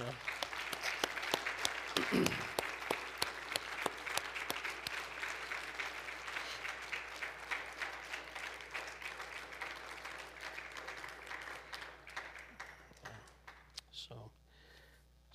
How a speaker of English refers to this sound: if you have served in the armed forces, we would like to have you stand and be recognized at this time, if you would, please. Okay. All right. round of applause,